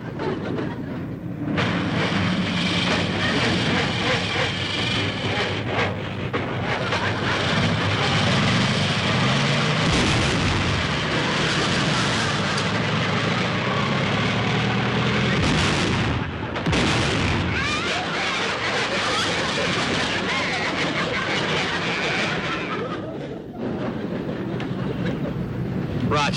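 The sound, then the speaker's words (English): An old car engine at a gas station sputters, coughs and clatters loudly as Rochester tries to start the car, a continuous rattling roar broken by sharp pops and bangs as it struggles to start, with no talking. “Come on, Rochester, start the car.”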